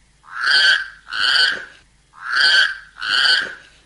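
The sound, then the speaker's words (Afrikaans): A voice imitates the call of a Karoo toad (Karoo rough toad) with four harsh, buzzy croaks delivered in two quick pairs, fairly loud, with no talking around them. “En dit is die Karoo skurwepadda”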